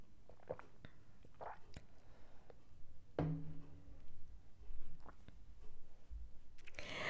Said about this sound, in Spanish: Mm voy a tomar un poco de agua mientras ustedes contestan.